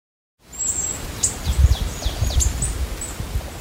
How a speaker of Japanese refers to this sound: あの今たまたま周りにですね、さまざまな鳥の群れが混ざった混群という群れがいます。あのスズメぐらいの大きさの体の小さな鳥が先ほどからこの上行ったり来たりしてるんですけど